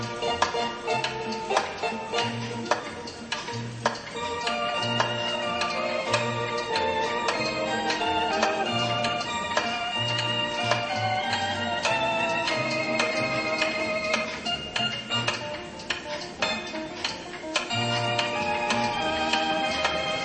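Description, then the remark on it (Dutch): A pendulum clock chimes loudly and continuously, ringing out a bright, bell-like melody over a steady, low rhythmic pulse for the whole stretch, with no voices. “gaat keihard hoor, die klok. Harder dan het orgel.”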